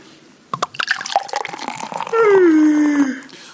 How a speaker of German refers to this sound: Wobei das Einschenkgeräusch schön ist.